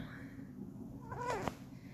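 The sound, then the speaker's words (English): A single short meow from Jinx, a pet cat, rises and falls over a low background hum, moderately loud, with no one talking. “Fucking cat.”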